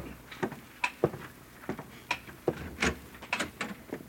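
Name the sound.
door being opened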